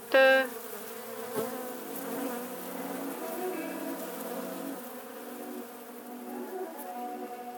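A dense, steady buzzing of many honeybees swarming around a hive, continuous, with a brief louder burst at the start and no voices.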